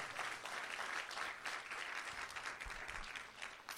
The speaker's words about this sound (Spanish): Vamos, alguien den un aplauso fuerte al Señor. Vamos, den un aplauso fuerte al Señor como si usted lo creyera.